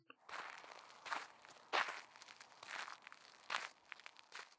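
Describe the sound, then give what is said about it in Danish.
Steady footsteps crunch along at a walking pace, about six or seven crisp steps, fairly quiet, with no voices, as someone walks after a bird. “Han bliver nysgerrig og går efter fuglen.”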